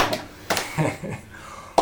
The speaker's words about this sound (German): Genau wir, genau, wir geben uns jetzt immer selber Applaus. Das finde ich auch gut. Lass uns das so beibehalten.